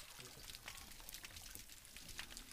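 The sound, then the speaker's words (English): Dense underwater crackling and popping from mantis shrimp punching and cavitation, recorded from a dock off Catalina Island, California: sharp snaps fizzing over one another in a steady, busy texture, with brief louder clicks scattered throughout and a low watery rumble beneath. “recorded what all this punching and cavitation sounds like from a dock off of Catalina Island in California”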